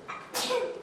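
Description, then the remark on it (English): A single sudden sneeze bursts out, sharp and breathy, with a brief intake just before it and a short fading tail afterward. “Bless you.”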